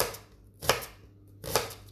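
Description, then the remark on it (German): A knife dices half an onion into small cubes on a cutting board, two distinct crisp cuts about a second apart, clear with no talking. “Und dann schneidest du daraus kleine Würfelchen.”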